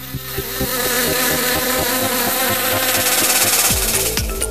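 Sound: bee buzzing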